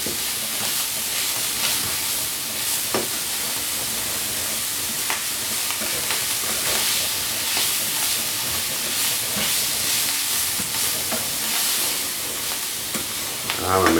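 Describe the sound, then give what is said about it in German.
Food is seared in a hot frying pan, cooked in two batches, a steady dense crackling hiss with occasional sharper pops and scrapes, fairly loud throughout, with no talking. “Weil schön angebraten schmecken die doch auch klar. Mache ich auch in zwei Ladungen.”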